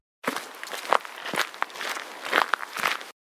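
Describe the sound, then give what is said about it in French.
Footsteps of a person who has got off a bus at a bus stop at the foot of a new building, walking at an unhurried, slightly uneven pace, about half a dozen soft steps standing out against a steady wash of background noise. No one speaks. “Il descend de marcher vers Ibu.”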